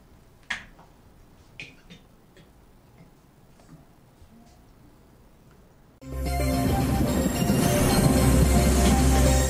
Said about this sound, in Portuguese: temos a vinheta aí da previsão do tempo, né? Roda aí para a gente ouvir o que a Ipagre Ciran diz para a gente.